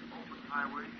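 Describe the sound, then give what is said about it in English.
A brief, tinny radio transmission from a rescue boat during a flood: a muffled, band-limited voice speaks over a steady electrical hum, rising slightly louder midway through the one-second burst. “Hey, where's our radio coming from? That's a rescue boat.”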